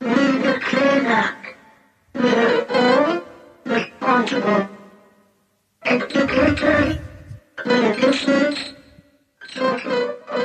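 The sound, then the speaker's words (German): A piano hammers out dense, rapid note clusters that mimic a human voice speaking, forming six phrase-like bursts separated by brief pauses, loud. “was du hier hörst, ist tatsächlich eine Stimme, die mit Klavier gespielt wurde.”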